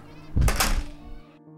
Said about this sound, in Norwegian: Lærerne gikk inn i klasserommet sitt, og så lukket de døren.